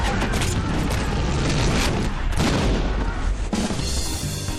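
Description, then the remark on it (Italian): A loud, dense volley of blank gunshots fired in celebration in quick succession, the booming reports overlapping into a continuous barrage, with a few sharper cracks standing out and no voices. “colpi a salve in segno di giubilo”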